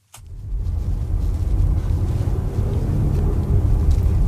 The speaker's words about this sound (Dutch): misschien kan je het horen. Ik denk het wel. Je hoort een beetje dat tramgeluid, maar toch ook een verbrandingsmotor.